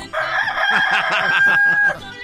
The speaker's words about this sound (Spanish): usted se llevará completamente gratis el despertador del gallito